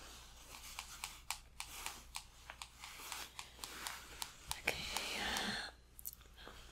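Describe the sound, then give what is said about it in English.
Quiet taps and clicks on a phone screen come in an irregular, quick rhythm, with a brief soft swiping rustle partway through, as someone checks the phone. No one speaks. “Let me just check my phone just one moment, okay?”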